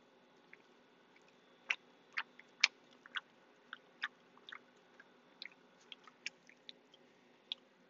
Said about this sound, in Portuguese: Ouviram? Boa. Para quem não percebeu, foi mastigar. Eh, porque eu liguei o áudio. Eu, eu, eu, eu liguei o Zoom no automaticamente para o áudio. E portanto a turma toda ouviu-me a comer torradas.